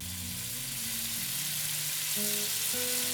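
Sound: food frying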